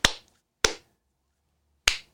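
Three sharp hand claps, unevenly spaced, made to test a room's echo and resonance while looking for a spot to place a microphone, each a crisp loud crack with a short ringing tail fading behind it. No one speaks.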